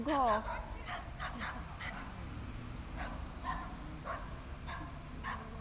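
A small dog lets out a loud, high yelping whine, then keeps up a series of short, sharp yips and barks at irregular intervals, with a steady low background rumble.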